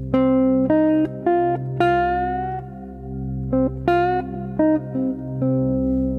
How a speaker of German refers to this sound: Es ist nicht wirklich der Ton dazwischen, sondern ein richtiger Bluesmusiker auf einer Gitarre, aber auch auf anderen Instrumenten schleift den Ton an. Es ist eine ein bisschen erhöhte Quarte, hör mal.